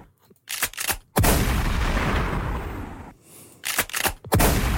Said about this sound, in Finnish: Kolme kunnia laukausta. Toi viimeinen oli paha, toi osu kyllä nyt oikeasti. Korviin korvi.